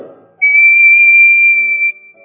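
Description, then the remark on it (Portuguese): A person whistles into a transmitter to show the sound's waveform, a single sustained, steady high note lasting about one and a half seconds, loud and clear with no talking over it. “Você pega um transmissor, você assovia e você então tem a forma da onda.”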